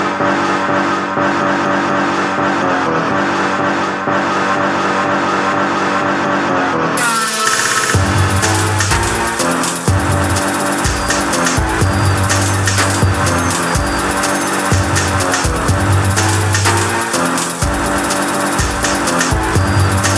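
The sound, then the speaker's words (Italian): A loud music track made solely from racing car noises recorded over two days at a race track and factories: a sustained, tonal engine drone opens, then gives way to a dense, rhythmic mix of roaring motors, tire squeals and pulsing bass hits, with no voices. “fatto esclusivamente con i rumori catturati in due giorni fra pista e stabilimenti.”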